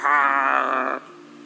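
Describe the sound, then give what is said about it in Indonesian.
A voice imitates the loud snoring of a wife asleep next to the speaker, with one long, rough, rumbling breath that stops abruptly and leaves a quieter tail. The imitation is strong, with no talking over it. “Istriku di sebelah tidur ngorok.”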